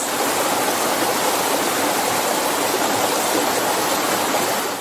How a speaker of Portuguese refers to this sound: O Circuito das Cachoeiras do Prata reúne cerca de 42 quedas d'água. Trata-se de uma área de preservação ambiental localizada numa região repleta de paisagens incríveis.